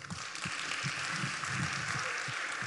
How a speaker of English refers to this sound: Can you clap your hands for God?